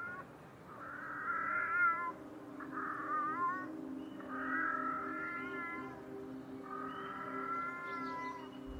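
cat meowing

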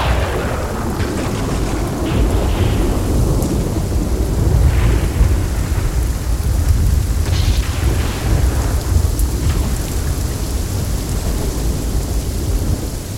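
thunderstorm with heavy rain

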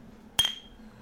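beer glasses clinking

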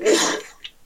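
sneeze

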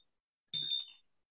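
meditation bell chime

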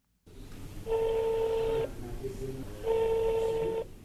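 telephone number being dialed

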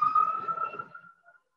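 ambulance siren passing by

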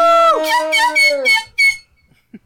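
air horn blast

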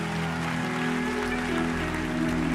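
audience clapping

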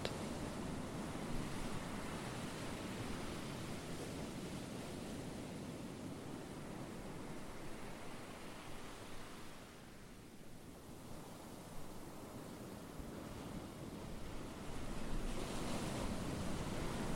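ocean waves

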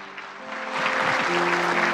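audience applauding loudly

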